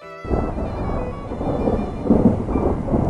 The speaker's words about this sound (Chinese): 夏日的雷雨交响曲开始了，啪嗒，啪嗒，黄豆大的雨滴使劲儿砸向大地。雨点越来越密，声音越来越大，直至哗啦啦的雨声占领了赛弗和维特的耳朵。